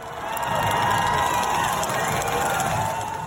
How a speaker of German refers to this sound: An der Tagwache werdet ihr danach aufgefordert zu brüllen. Das heißt im Mundart zwar auch weinen, meint an der Fasnacht aber schreien.